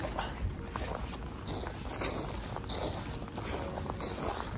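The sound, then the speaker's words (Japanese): Steady footsteps crunching over frozen grass lightly covered with snow, evenly paced, each step a brittle crackle like walking on frost, with no voices; recorded in late November. “まあ、雪の音というよりもちょっとうっすら雪がかぶった草が凍ってるんですね凍った草を踏みしめる音”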